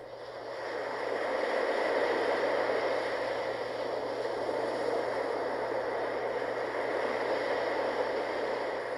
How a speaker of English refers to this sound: Uh, with uh, the the noise barrier of, of a noise machine is such a huge win, and so this has been part of our life for like seven years now, and uh, we hear it every single night. And um, this is the exact sound.